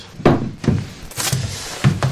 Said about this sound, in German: Links und rechts sieht man vollgeräumte Fächer hinter Glastüren, unten sind Schubladen. Klemmt.